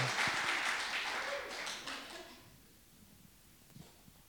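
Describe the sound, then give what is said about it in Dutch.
A crowd applauds the first speaker at a meeting with dense, steady clapping for about two seconds, then the applause fades out into quiet with a few faint scattered sounds. “Yes, dan maken we nog een applaus.”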